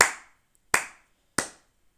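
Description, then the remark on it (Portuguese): Three sharp hand claps, slow and evenly spaced, from a single person, each ringing out briefly before the next, with no voices. “Uma salva de palmas para ele que ganhou mil paus com dois papéis.”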